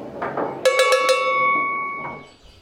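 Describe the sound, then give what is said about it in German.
Real cowbells hung on plastic model cows in a replica Swiss landscape with meadow and painted mountains clang several times in quick succession, a bright metallic ringing that sustains and fades, over a low background murmur. “Also mit Wiese, so ein bisschen Berge an der Wand, Kühe, natürlich keine echten Kühe, sondern Kunststoffkühe, aber echte Kuhglocken.”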